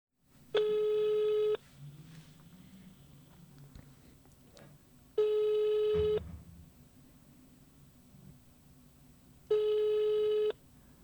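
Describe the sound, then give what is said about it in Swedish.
A phone ringback tone repeats three times, each long buzzy tone about a second long with gaps of several seconds between, nobody picking up; faint room noise fills the pauses. “ska jag testa att ringa Axén?”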